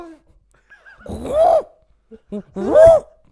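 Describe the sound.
A person imitates a T-Rex roar with two loud, strained, growling vocal bursts, separated by a short pause with a few small breathy sounds.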